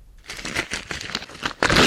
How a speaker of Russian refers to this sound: Еще раз перечитал первую страницу, оскалил зубы и рванул ее руками.